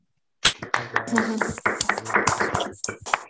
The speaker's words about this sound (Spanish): Y ahora, y ahora, los docentes, aplauso para los padres.